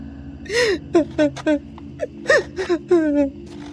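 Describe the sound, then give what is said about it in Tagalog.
A woman sobs and whimpers in short, broken bursts, her voice catching with quavering, high-pitched cries over a low steady hum. “Bakit ka umiiyak?”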